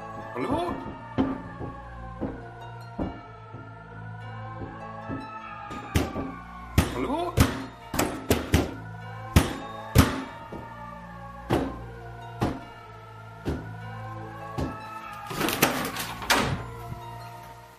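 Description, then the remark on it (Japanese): A doorknob rattles and clunks repeatedly in irregular bursts, with sharp metallic clicks clustering toward the middle and end, in a 2011 home video shot by an overseas streamer in a house where strange noises came from the attic, over a steady background with voices. “出た、ドアノブガチャガチャ系の霊現象ね。”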